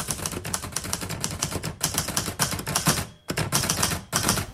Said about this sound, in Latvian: Sēžu atkal departamentā, mani pirksti veikli slīd pār rakstāmašīnas kauliņiem.